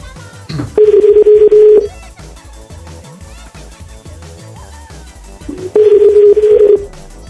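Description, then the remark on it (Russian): Two long, steady telephone line tones sound several seconds apart, each lasting about a second, loud, over a busy background of other sounds while a call to Kazan is placed. “У нас же можно в Казань позвонить?”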